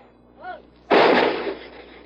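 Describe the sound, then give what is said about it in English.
A single heavy artillery blast from a naval gunboat firing 105 millimeter shells point blank into enemy positions on the eastern bank of a river erupts abruptly, a broad loud boom that rolls and decays over about a second, preceded by a brief faint whine or harmonic tone. “For days, this naval gunboat's been firing 105 millimeter shells point blank into enemy positions on the eastern bank.”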